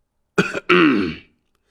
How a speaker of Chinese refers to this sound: 老者轻轻咳嗽了一下，声调一扬。